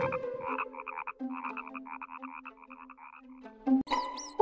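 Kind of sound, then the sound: animal, toad croaking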